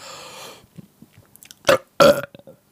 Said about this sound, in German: Ich kann mir vorstellen, ich mache meinen Mund voller Luft und schlucke dann einen Ball aus Luft herunter und der könnte da in Form eines Rübsers äh, rauskommen.